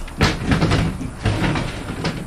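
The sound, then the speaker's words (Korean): A door is opened with a sharp clunk followed by rattling, and a second bump about a second later, fairly loud with no voices. “원씨가 문도 열어놓고”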